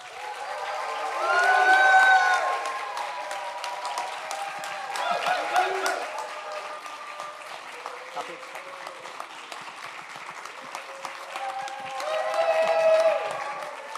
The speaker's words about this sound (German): Genau, meine Damen und Herren. Schlagt eure Hände zusammen, stampft mit den Füßen. Hier kommt der Ministerpräsident Dr. Andreas Bovenschulte.